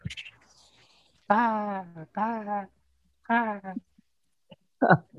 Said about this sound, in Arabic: هذا الصوت الغريب اللي ماني فاهمه الى الان المفروض انه يعني طير فوق بيعدي عشان في وسط الصحراء هذا الغراب حق الانمي وليش بوسط الصحراء ابغى اعرف